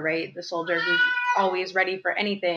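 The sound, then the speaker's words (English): A male pet cat meows in the background, one drawn-out, tonal meow rising over a person talking steadily in the foreground. “Also, that's my cat. You guys hear him in the background.”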